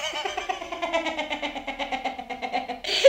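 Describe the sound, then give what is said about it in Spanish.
A voice imitates a small fart, blowing a buzzing, fluttering lip raspberry for about three seconds before it ends in a brief breathy puff. “Pero de verdad sonó como un pedo, o sea, sonó chiquitito, como si cuando todos y se te sale uno de escape, así igualito”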